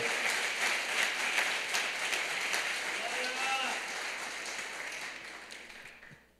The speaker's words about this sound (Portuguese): Você pode aplaudir o nome do Senhor? Aleluia!